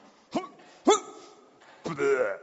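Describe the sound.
A person imitates a dog retching and throwing up with their voice: two short, sharp hacking gulps, then a longer, strained gagging heave.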